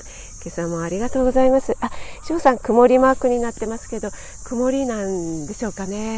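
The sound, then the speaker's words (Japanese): A steady, high-pitched buzz of cicadas drones continuously outdoors on a sunny morning with a cool breeze, never letting up while a woman talks over it in the foreground. “今朝も野外でライブ立てましたので、ちょっとカラスのカーカーとセミがうるさいかなと思うんですけども”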